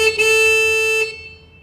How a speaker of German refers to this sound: Da haben wir eine Hupe, leider keinen Treffer